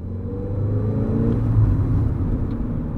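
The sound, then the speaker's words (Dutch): Steady low engine rumble from inside a moving car driving to visit an arable farmer in Band, a village between Emmeloord and Lemmer; a continuous droning hum with faint tonal harmonics, fairly loud and unbroken, with no voices. “Ik zit in de auto, maar dit keer ben ik niet onderweg naar Arnhem.”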